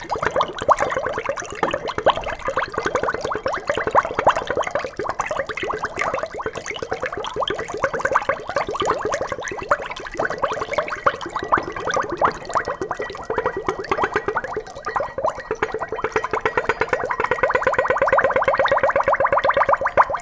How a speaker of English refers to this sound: The more liquid that empties from the funnel, the higher the pitch. That's what happens with a Helmholtz resonator, any vessel with a small opening.